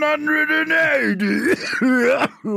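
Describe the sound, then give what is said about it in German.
A person imitates the cough of a darts announcer with a long, strained, throaty vocal sound that rises and falls in pitch, followed by a short second burst. It is loud. “Und auch diesen Huster, den macht er.”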